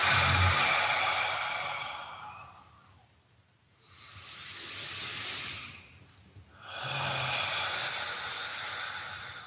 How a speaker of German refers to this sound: Und deswegen habe ich dann meine Art und Weise gefunden, eben ganz tief und verbunden, ruhig zu atmen, mal durch die Nase ein und dann wieder durch die geöffneten Lippen aus